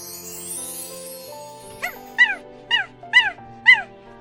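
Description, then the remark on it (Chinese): A small black dog lets out a brief whimper followed by four high, sharp yipping barks in an uneven rhythm, loud over a quiet sustained musical background. “大黑狗变成了小黑狗，不再那么大，也不再那么吓人了。”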